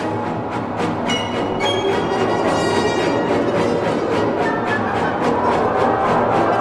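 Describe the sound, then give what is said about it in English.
An orchestra, playing as the curtains rise, thumps a single dissonant chord over and over, 59 times, in a steady, driving pulse, loud and unchanging, with no melody or harmonic movement and dense string-like harmonics sustaining between the hammered beats. “It's just this one chord this dissonance thumping over and over and over 59 times.”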